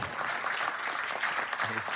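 A crowd applauds steadily, a dense wash of many hands clapping at an even level throughout, with a brief murmur of voices near the end.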